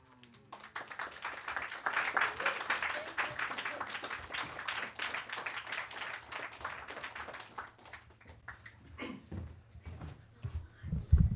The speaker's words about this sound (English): got two got two rounds of applause for one poem. That's a skill.